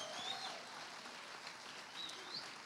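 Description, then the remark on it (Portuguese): A church audience applauding the Lord in a steady, sustained wash of clapping, with a few faint high whistle-like chirps rising over it. “Aplauda o Senhor agora.”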